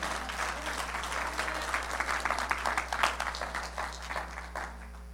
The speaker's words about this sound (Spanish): No sé si el aplauso es para esas mamás o es para Dios que te dice que te tienes que comer todo tú no vives, déselo fuerte al Señor.